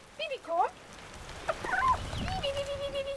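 Chickens kept at an alpine pasture hut make short, warbling clucks and gurgles in several bursts, ending with a longer sustained call, over a quiet outdoor background.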